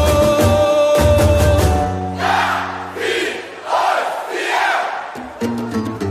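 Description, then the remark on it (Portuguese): A large crowd of Corinthians football supporters, the Gaviões, chants and sings in unison in a stadium, loud and rhythmic, with strong harmonic voices swelling in waves and brief pauses between phrases. “Olha gaviões aí com muita emoção.”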